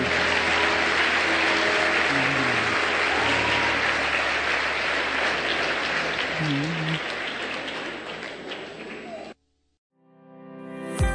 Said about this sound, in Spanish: Demos un aplauso a nuestro Rey.